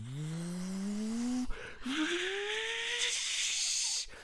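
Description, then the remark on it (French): A voice imitates a plane taking off from Geneva airport: a breathy, hissing roar with a whine that climbs in pitch, breaks off briefly, then rises again and holds before cutting out, loud. “Et toutes les deux minutes, il y a un avion qui décolle.”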